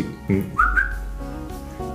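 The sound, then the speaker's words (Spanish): A person gives a single short whistle that glides upward in pitch, clear, lasting under half a second over a low background hum. “Me devolví esa meditación y sentí un silbado, un silbido”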